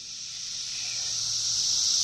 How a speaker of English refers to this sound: Uh, it's just a bunch of cicadas. But when we come back from break, we will dig into that sound and find out that it is much more than at least I ever thought it could be.